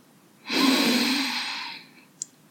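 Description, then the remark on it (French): A single long, deep breath drawn in, a broad airy rush lasting about a second and a half before fading, followed by a tiny click. “Prenez une grande inspiration.”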